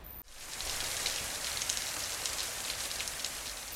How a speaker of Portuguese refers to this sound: Nós precisamos convidar o granizo para fazer uma visita. E o granizo apareceu.